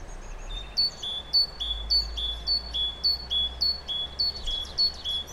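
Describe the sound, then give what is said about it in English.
A small bird in a forest chirps repeatedly in quick, evenly spaced bursts of bright, high-pitched notes, clear over a faint low rumble of outdoor background. “Um, the birds have stolen my food. Uh, they left this one here to taunt me, I think.”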